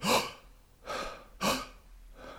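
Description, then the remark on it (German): A person demonstrates deep, open, wide inhalations: three or four breathy rushes of air at regular intervals, fairly loud, the first with a slight voiced gasp to it. “Offen und weit einatmen und mit diesem Halsgefühl spielt ihr dann die tiefen Töne.”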